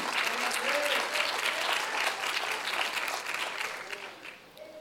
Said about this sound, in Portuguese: pode aplaudir ao Senhor, queridos, Ele é bom.